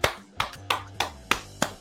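Hand clapping: about seven sharp, crisp claps in a steady rhythm, roughly three per second, with a faint low hum underneath and no speech.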